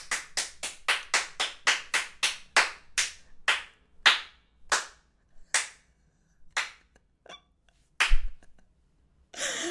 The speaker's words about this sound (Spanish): Bienvenidos. Y aplauso.